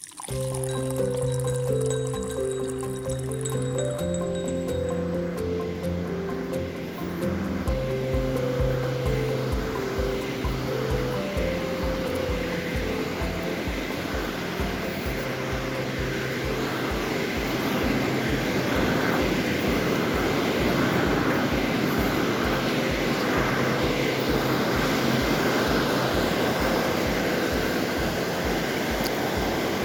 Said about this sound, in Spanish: con este vaivén de olas en el mar, quiero que empecemos a disfrutar este cafecito espiritual.